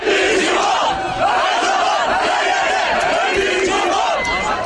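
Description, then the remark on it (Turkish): A large crowd of about 500 Galatasaray football fans chants loudly and continuously in Kastamonu, Turkey, supporting their team on its arrival, voices merging into a rhythmic, sustained roar that fills the whole recording without pause. “Yaklaşık 500 taraftar tezahüratlarla takımlarına destek verdi.”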